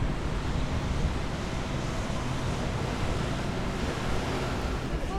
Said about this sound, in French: Et voilà, écoutez le doux son du tram qui circule.